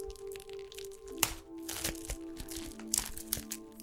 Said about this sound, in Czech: A co zvuk bublinkové folie?